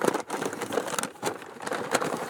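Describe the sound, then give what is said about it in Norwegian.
Old plastic bags holding cattle material from Bergen crinkle and rustle continuously, a dry irregular crackling with a few sharper crunching bursts, steady and fairly loud with no voices over it. “Vanligvis ligger det i plastposer. Dette her er gamle poser.”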